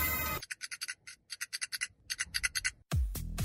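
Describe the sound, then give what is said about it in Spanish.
A matchbox is handled, giving a quick series of dry, papery rattling shakes in an uneven rhythm, about two dozen short bursts, with a louder hiss before and a deep rumble after. “El sonido misterioso es de una caja de cerillos.”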